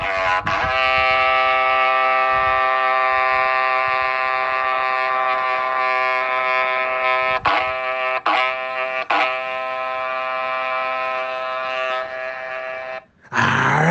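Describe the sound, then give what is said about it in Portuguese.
A berrante cattle horn is blown, sounding one long, loud, steady brassy drone lasting over ten seconds, with a few brief flickers midway before it cuts off. No one speaks. “coloca o som do berrante que hoje estamos muito pantanalizados.”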